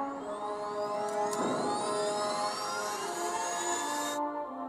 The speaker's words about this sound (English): Okay, that sound you just heard, that that's the actual sound I was telling you about. That that the Tesla makes. I found it and that is the sound um that that that the Tesla makes when you accelerate.